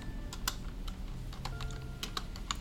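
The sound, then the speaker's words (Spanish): Quick, irregular keyboard clicks, a short burst of typing with uneven spacing between keystrokes over a low background hum, no voices, as someone pastes a sudo pacman command to install LibreOffice in Spanish, presses Enter and types a password. “Pegamos. Control B Shift damos enter, contraseña y ahí va a descargar.”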